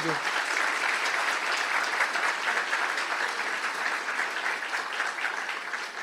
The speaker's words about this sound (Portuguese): Então, queria que vocês recebessem o pastor Leonardo com um aplauso caloroso, nosso irmão querido.